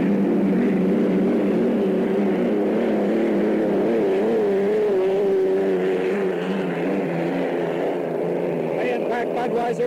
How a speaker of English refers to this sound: We do not have a time as of right this second, but we'll have one in a minute. Looks like about 117 miles per hour for both boats, about the same time, 116 plus.